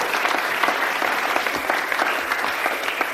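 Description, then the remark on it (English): A church audience claps steadily for a woman called up to tell what God has done for her, a dense wash of many hands clapping at once with no pauses, loud and even throughout. “Give her a clap.”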